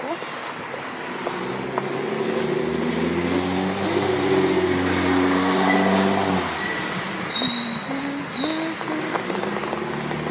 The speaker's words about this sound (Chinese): 小心车辆溅上水，车辆在路上溅起了水，把你的全身都打湿。